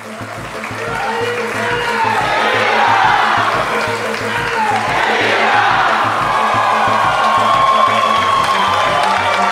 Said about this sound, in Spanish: Luego los aplausos se comenzaron a escuchar en el Salón Azul, ante unos diputados oficialistas que tardaron en reaccionar. Los diputados de Arena, FMLN y otros partidos de oposición nunca aplaudieron ni se pusieron de pie.